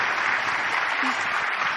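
A crowd applauds its leaders steadily, a dense, even wash of clapping that holds at a consistent loudness throughout with no pauses or voices standing out.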